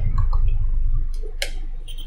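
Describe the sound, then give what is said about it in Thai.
An EMF meter held over a laptop gives short, irregular electronic beeps and chirps as it picks up emissions from the Wi-Fi and Bluetooth adapters on the motherboard, with a couple of sharp clicks, over a steady low background hum. “อย่าง EMF เนี่ย ในโน้ตบุ๊กก็มีนะ เดี๋ยวผมจะเอาไปท่าบนโน้ตบุ๊กเผื่อมันจะร้อง มีไหม”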